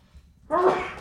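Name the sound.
sneeze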